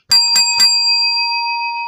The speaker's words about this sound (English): that's for those who have never heard the bell. That means wake up. Wake up, you are being deceived.